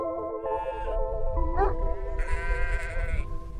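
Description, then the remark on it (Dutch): Sheep bleating in a quick overlapping series of wavering, nasal calls, fairly loud, with one higher, brighter bleat standing out near the end over a low rumbling background. “Nu de wolf terug is in Nederland, moeten schaapsherders hun kudde goed beschermen.”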